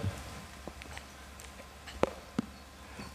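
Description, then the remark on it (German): Light rain falling outdoors, with scattered drops tapping irregularly on a surface over a soft, steady hiss. It's fairly quiet and no one speaks. “Es regnet, es regnet.”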